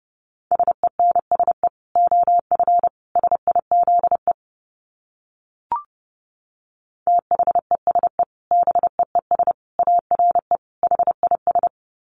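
Morse code sent at a brisk 30 words per minute: a steady mid-pitched tone keyed into rapid dots and dashes, two long runs of characters separated by a short pause and a faint click.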